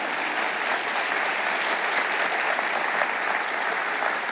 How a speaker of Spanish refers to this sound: Y por Él deberías darle el mejor aplauso a tu Padre, al Dios que te ama.